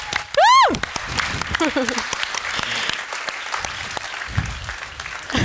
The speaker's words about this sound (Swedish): Applåd!